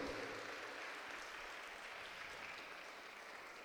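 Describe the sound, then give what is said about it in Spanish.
An audience applauds steadily in praise of the Lord, a dense wash of many hands clapping at once, sustained and fairly loud throughout with no voices standing out. “Le damos un fuerte aplauso a Él, que se lo merece con todo nuestro corazón.”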